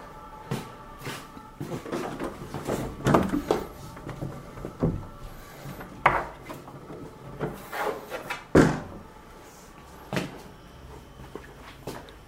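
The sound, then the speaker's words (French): A series of wooden knocks, clunks and rubbing sounds as doors or cupboards are opened and shut at irregular intervals while people search the rooms for someone, with a few sharper bangs and no speech. “Tiens, regarde à la porte à droite”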